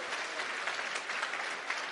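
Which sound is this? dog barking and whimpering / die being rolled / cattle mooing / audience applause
audience applause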